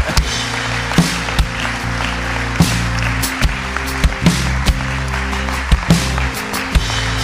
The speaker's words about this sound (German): Weißt du, bei mir in meiner Church zu Hause klatschen wir jetzt. Einfach, weil.